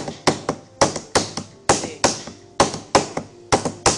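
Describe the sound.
A rhythmic beat tapped out on a tabletop, crisp, with quick clusters of knocks repeating in a steady groove for several seconds, no voices over it.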